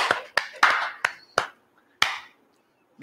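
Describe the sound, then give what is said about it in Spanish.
A handful of sharp, loud hand claps, about seven in all, arrive at an uneven pace with short gaps between them, like sparse applause, given in thanks at the end of a broadcast. No one speaks. “Y un fuertísimo, el más fuerte de los aplausos para Orlando, que se ha esforzado por llevar esta transmisión adelante con todo y las adversidades.”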